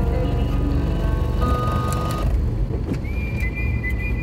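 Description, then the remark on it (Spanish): Loud engine rumble from two large buses idling and moving in traffic, heard from between them, a steady low drone with brief high whines and tones cutting through, and no talking. “Oh, estoy en medio de dos camiones.”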